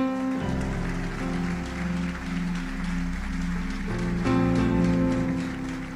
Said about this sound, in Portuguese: A igreja pode aplaudir o Senhor. Pode aplaudir o Senhor.